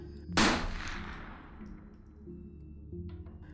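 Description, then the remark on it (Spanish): A single loud gunshot, the first shot fired by a masked attacker at a man inside a car as he tried to open the door, cracks sharply near the start, then rings out in a long, echoing decay over a low rumbling background. No one speaks. “pero antes de que siquiera pudiera abrir la puerta recibió el primer disparo.”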